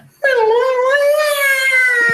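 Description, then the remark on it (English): An eagle scream sound effect: one long, drawn-out, high-pitched cry that swells in suddenly, wavers slightly in pitch and holds loudly for about two seconds, with no talking. “Eagle scream. That's your new sound effect.”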